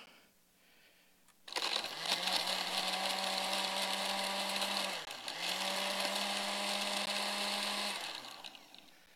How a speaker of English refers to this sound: He grinds the idol into a powder and he throws it into the water.